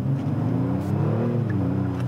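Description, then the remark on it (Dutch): A Kia four-door sports sedan's engine hums with a steady, loud low drone, its pitch lifting slightly midway as if given a touch of throttle, with no voices over it. “Nou, het duurde ruim zes jaar, maar Kia durfde het dan toch aan om deze vierdeur sportsedan op de markt te brengen.”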